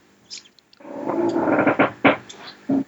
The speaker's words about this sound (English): Creak of a chair. yeah, sorry, doors creaking in this place. The heating's on.